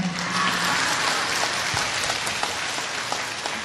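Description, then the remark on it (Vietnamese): A crowd applauds steadily, a dense wash of many hands clapping at once, sustained and fairly loud throughout with no voices standing out. “vị nghe bị vui vỗ tay hoài phải an hả”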